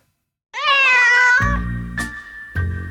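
A cat lets out a loud, drawn-out wavering yowl, followed by low rumbling growls and two sharp spitting hisses, like a brief scuffle between cats, close up and with no talking.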